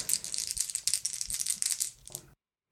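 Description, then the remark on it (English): An action die and challenge dice rattle and clatter in a quick, dense run of bright clicks for about two seconds, ending with a last short tumble before stopping abruptly. No one speaks. “So I got seven on the action die.”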